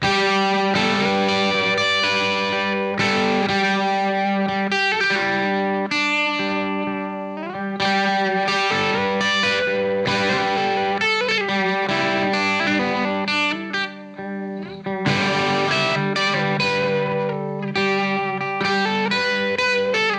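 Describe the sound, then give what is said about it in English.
A guitar plays sustained, distorted chords through a tube phaser, with an intermittent warbling sweep that swells and wobbles the tone now and then. Loud and steady with no voices. “You really hear the dryness of the signal, but occasionally like you hear this warble and just like bumps the sound and makes it sound a little, um, I don't know, a little uh, mournful almost, I would say.”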